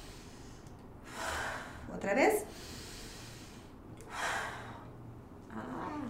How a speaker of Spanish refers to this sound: La otra es la misma, igual, respira. Pero ahora en vez de sacar poco a poco hacemos rápido. Eso, otra vez respira lento